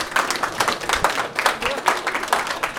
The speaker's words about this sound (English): Yeah, applause.